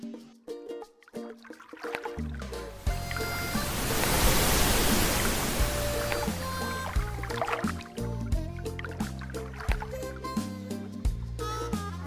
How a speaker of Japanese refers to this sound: だから今日今流した波はバイロンベイの波だってことですよねそうですねバイロンベイのザ・パスというポイントの波ですね